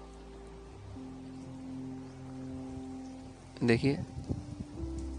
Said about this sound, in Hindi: हवा जब पत्तों से टकराती है तो एक अलग सा यू नो लाइक अलग म्यूज़िक होता है उसका